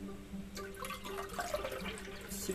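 Someone sips tea, made with 5 g in 500 cc of water, with a few soft, wet slurping sounds and faint liquid noises over a low steady hum. No one speaks.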